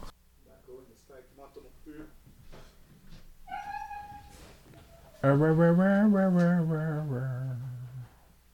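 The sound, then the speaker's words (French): An old dog whines for attention: a short high-pitched whimper, then a loud, drawn-out wavering moan lasting a few seconds. Brief murmurs come before it. “Les chiens à bois. Ce chien vieux, man.”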